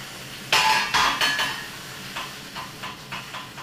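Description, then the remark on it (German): A pot of salted water for spaghetti at a rolling boil with the lid taken off, hissing steam swelling in several uneven bursts over a steady bubbling hiss, no voices. “So, das Nudelwasser kocht.”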